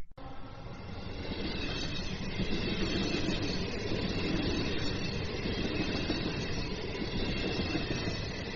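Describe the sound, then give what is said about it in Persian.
A train rumbles steadily along the rails on its way to Liverpool, a dense, continuous roar with faint rhythmic clatter, heard from inside a carriage, holding at an even loudness throughout. “نیم ساعت بعد من و بازرس و پوارو تو قطار به سمت لیورپول میرفتیم”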